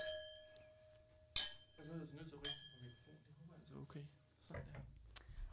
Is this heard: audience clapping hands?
no